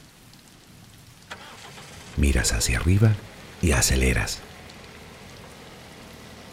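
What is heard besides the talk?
steady rain falling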